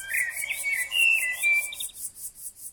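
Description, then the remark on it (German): A prairie blackbird sings a bright, whistled song of sliding, fluting notes for about two seconds, over a steady, rapid pulse of high chirps that continues once the song stops. “Eine Prärieamsel sang ihr Lied.”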